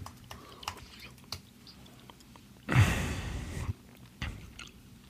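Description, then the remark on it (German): A man with a bad flu chewing Haribo Picoballa gummy candy, with soft sticky mouth clicks scattered through and a louder breathy rush of air in the middle; no one speaks. “Was Sie hier hören, ist eine Mischung aus brutaler Männergrippe und Haribo Picoballa.”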